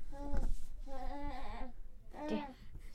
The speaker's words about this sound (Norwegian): Og nå kan dere kanskje høre litt sånn eh, babylyder i bakgrunnen her, fordi babyen er med på slep, den uansett eh, hva vi i Hundorama holder på med.